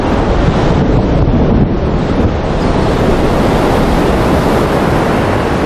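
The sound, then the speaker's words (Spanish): Loud, continuous roar of wind and surf on a stormy coast at Finisterre, the western tip of Brittany, France, in heavy rain, with buffeting gusts battering the microphone and a dense wash of noise like heavy rain and crashing waves. No one speaks. “Y ya lo oyen, no hemos pillado un buen día. Cuando aquí se pone a llover, llueve en serio.”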